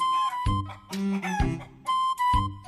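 A rooster crows loudly on a farm, a few strained, harmonic calls in quick succession with short gaps between, with no one talking over them.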